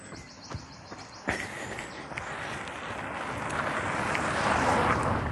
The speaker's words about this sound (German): Und auch die, da kommt schon wieder ein Auto durchs Feld. Das gibt's doch nicht. Was ist denn hier los?